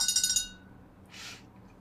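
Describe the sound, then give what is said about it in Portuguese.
An 800 ml glass bottle of sparkling organic artesian water from Norway is handled, giving a quick run of bright, high clinks that fade, followed by a softer single rattle or scrape of glass a moment later. No one speaks. “Essa é carinha, tem 800ml. É a de vidro, ó.”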